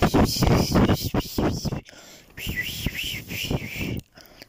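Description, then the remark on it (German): Someone tries to whistle, producing a few thin, wavering, breathy tones after a burst of chatter, rising and falling unevenly before trailing off into near silence. “Ey, könnt ihr pfeifen?”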